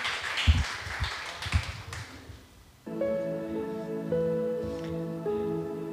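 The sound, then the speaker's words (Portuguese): An audience claps for about three seconds to glorify the Lord Jesus, a dense patter of hands with a few louder beats, then fades as sustained keyboard chords come in and carry on steadily. “as palmas engrandecem nosso Senhor Jesus.”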